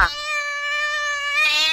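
A single long, drawn-out cat meow, loud, holding a steady whining pitch before rising slightly and fading at the end, with no other sounds around it.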